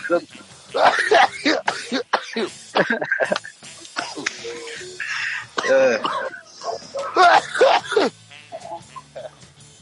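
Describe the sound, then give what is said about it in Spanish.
Several rough coughs and throat-clearing sounds, fairly loud, come in uneven bursts mixed with voiced, strained vocal noises across the whole stretch. “¿Quiere le paso el jarabe para la tos?”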